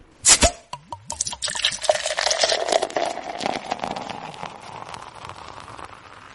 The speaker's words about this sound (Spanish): Permítame servirme un trago.